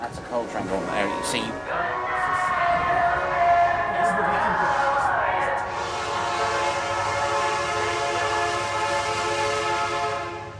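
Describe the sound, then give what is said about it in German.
A coal freight train, pulled aside to let a passenger train pass in the United States, rolls past with a steady, loud rumble and droning horn-like tones that persist throughout, with a brief voice audible at the start. “Wir passieren andere Züge. Das ist ein Kohlezug.”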